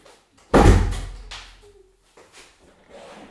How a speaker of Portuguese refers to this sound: Não, por acaso não preciso voltar, mas vou fechar a porta.